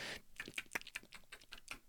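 Rapid, irregular keyboard clicks from a phone touchscreen, about ten crisp taps in quick succession, fairly quiet, with no talking.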